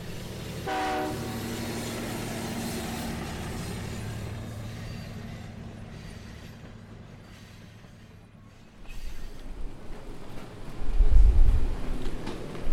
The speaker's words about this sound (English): Okay, we're getting on the train now. We will continue this conversation later.